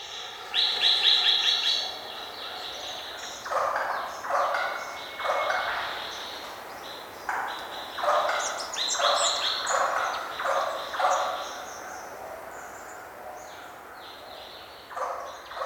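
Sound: lyrebird song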